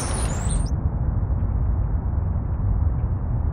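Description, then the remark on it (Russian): The sound of a city with chirping birds as it would sound on Mars, from the Sounds on Mars website: a steady, muffled low rumble with the high tones stripped away, so no birdsong comes through. Only a brief brighter trace appears at the very start before it becomes a dull drone. “как вы слышите, высокочастотные звуки практически пропали, птиц не слышно, остался только низкочастотный гул.”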